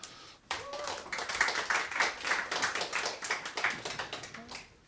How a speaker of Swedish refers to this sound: Ja, och Pia Sundhage har vi här också, damernas förbundskapten. En applåd för Pia.